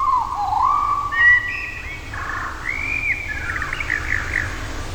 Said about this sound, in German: Und äh, tatsächlich, wenn man diese Amsel jetzt nimmt, auf minus 50 Prozent, wird sie natürlich erstmal etwas riesig. Klingt jetzt ein bisschen wie in den Tropen, so ein äh, riesiger tropischer Vogel im Urwald.